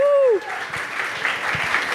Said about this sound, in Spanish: Muchas gracias de nuevo a todos ustedes por venir y por supuesto a la gente de Zapata que nos dio el lugar, nos puso el equipo y nos, dio la birra. Un aplauso, por favor.